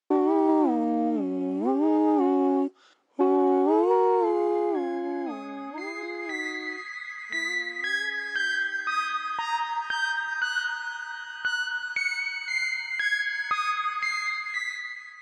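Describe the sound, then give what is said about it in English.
Stacked backing vocal harmony lines slide smoothly up and down, then give way to bright electronic synthesizer tones playing the harmonies, stepping between pitches, layered and sustained at a steady moderate level, with no talking. “Thundercat's backing harmonies are now played on a synthesizer, converting the organic to the electronic”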